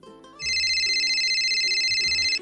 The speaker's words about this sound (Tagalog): Sandali lang babe ha, ah. sasagutin ko lang tong tawag.